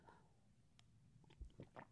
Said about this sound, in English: I'm going to have a sip of tea, everybody. If you've got one, have a sip too.